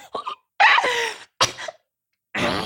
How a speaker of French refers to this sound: Mais désolé j'ai avalé ma respiration de travers